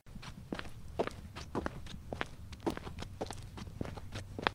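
Steady footsteps walk up to a priest at an even pace, about two steps per second, each a crisp thud over a faint low background hum, with no voices.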